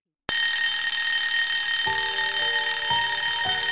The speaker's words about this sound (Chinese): 突然间手机响了，旅游车司机突然给他打电话来指责。